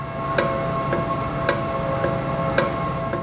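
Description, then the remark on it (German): A steady mechanical ticking from a properly working valve repeats in an even rhythm, roughly twice per second, over a constant engine-like hum. The ticks are crisp, with no voices. “Das ist diesmal ein Ventil gewesen, und jetzt spielt ihr das gleiche Ventil vor, wenn es kaputt ist.”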